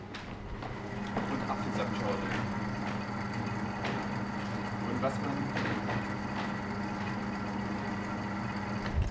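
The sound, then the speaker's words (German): A steady low electrical hum from a drinks vending machine at the Radio Free FM headquarters drones close by at constant volume throughout, with a person talking briefly over it. “Ein wunderbares Geräusch steht direkt vor uns, der Getränkeautomat.”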